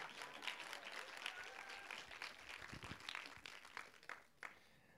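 An audience applauds with dense, sustained clapping that carries steadily for several seconds, with scattered louder claps poking out before it begins to thin toward the end.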